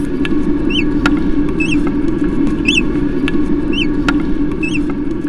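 Naked mole-rats of one colony greet each other: about five short, high, bird-like chirps repeat at a steady pace, roughly one per second, over a constant low rumbling background noise. No voices.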